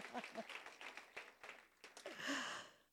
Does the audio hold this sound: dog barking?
no